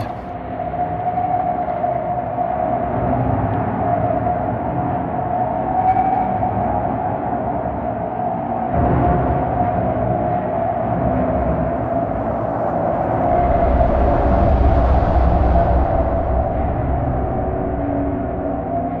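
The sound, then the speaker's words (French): A steady, high-pitched whistle from a racing sailboat's foils and keel, returning with the boat's speed as it sails the Southern Ocean toward Cape Horn, sings continuously over a loud rush of water and hull noise, with no one speaking throughout. “Avec la vitesse, le retour des sifflements des foils et de la quille.”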